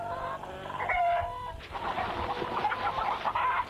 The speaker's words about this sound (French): Une table, des chaises, des poules qui picorent et même sur la table.